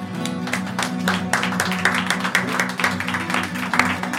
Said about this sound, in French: Voilà, on peut encore les applaudir d'ailleurs. Allez, on refait une salve, une salve d'applaudissements.